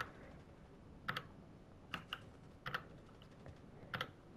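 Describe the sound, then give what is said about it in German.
Computer keyboard keys are pressed in a few quick clusters of two or three clicks, separated by short pauses, as someone adjusts the keyboard's LED lighting settings. The typing is fairly crisp over a low background hiss, with no talking. “Weil ich habe gerade in meiner Tastatur rumgespielt und dann habe ich das Ding, wo man macht, dass die Dinger äh, da sind, dass die LEDs da sind.”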